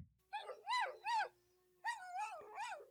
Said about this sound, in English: All night long, the spotted dog scratched and barked.